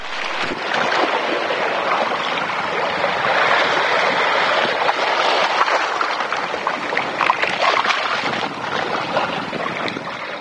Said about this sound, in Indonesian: Akan tetapi, apa yang tak diinginkan itu tak terjadi ketika dengan tiba-tiba ombak besar bergulung ke tepi menghempas keras ke pantai, menyapu habis semua mainan yang mereka pertengkarkan itu.